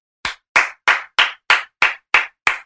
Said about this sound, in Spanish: Aplausos. Te felicito.